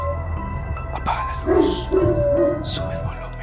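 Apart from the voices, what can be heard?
dog barking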